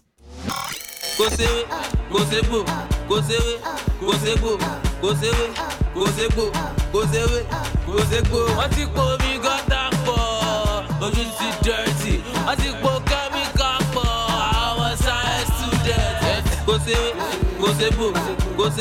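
A Nigerian pop song sung in Yoruba, number 10 on the Nigerian chart, kicks in after a brief silence, with a busy, steady dance beat and melodic vocals running loud and continuous throughout.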